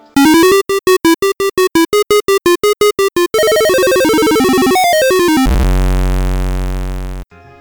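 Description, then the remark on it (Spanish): A single-voice square-wave chiptune melody from a soundtrack composed using only one channel plays alone and loud, starting with quick staccato notes, moving into a fast warbling arpeggio, then ending on a low sustained buzzy tone. “precisamente suena con onda cuadrada, que es la onda que, más impresión tiene en el, en el cerebro humano.”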